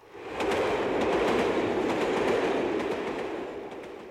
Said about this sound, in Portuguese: Bem, descendo em Canterbury, lembro que ainda estava vendo o trem se afastando com nossa bagagem.